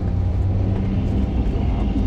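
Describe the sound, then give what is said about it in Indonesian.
A steady, low engine rumble fills the interior of a moving car, a constant droning hum with road noise and no pauses or voices throughout. “mobil nggak santai banget”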